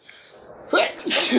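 A single loud sneeze with a sharp breathy burst, starting with a quick intake and ending in a forceful, noisy exhale.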